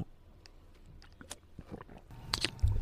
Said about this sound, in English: Yeah, you were nervous about opening that water bottle. Opening, drinking. I mean, you hear that? Can you guys hear me drink this water?